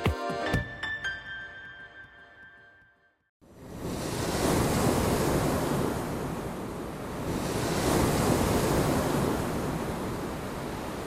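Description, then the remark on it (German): A short tonal jingle fades out, then the loud roar of large ocean waves breaking takes over, a dense wash of surf that swells and recedes for several seconds. “Wenn ich jetzt hier sitze und mir eine, eine große Welle anschaue, dann habe ich Angst vor der Welle.”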